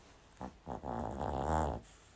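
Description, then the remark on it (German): A dog snores beside a person lying in bed, a short snort followed by one long, rumbling, wheezy snore that swells and then fades, with no talking. “Das war der Schnarcher meines Hundes neben mir.”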